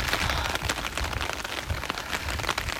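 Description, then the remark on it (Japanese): Steady rain pattering outdoors, recorded outside, a dense hiss of drops with occasional sharper splashes, over a low, blustery wind rumble. Continuous, with no voices. “外で撮ったので環境音(雨音、風の音)があります”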